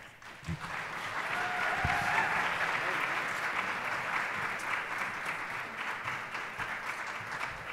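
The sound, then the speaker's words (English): Sustained audience applause welcoming a speaker at a Durham Public Schools event, a dense, steady wash of clapping hands that holds at an even level for several seconds, with a few faint cheers or whistles rising briefly near the start. “Please join me in welcoming Dr.”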